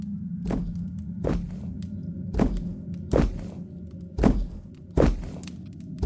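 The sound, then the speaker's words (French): Heavy, booming footsteps thud slowly and steadily through a castle, about six loud strides in a row, each landing with a deep impact over a low rumbling background. “Avant que Jack ouvrit la bouche pour répondre, le château retentit d'un terrible bruit de pas.”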